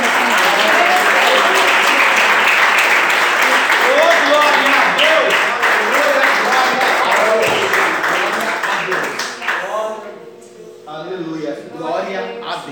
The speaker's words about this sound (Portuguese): E as palmas que adoram e glorificam o nome do Senhor Jesus.